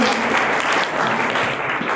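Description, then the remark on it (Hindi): A crowd claps loudly for Komal, a dense, continuous wash of applause filling the whole moment with no pauses, like a large audience responding together. “okay कोमल के लिए जोर से ताली बजा”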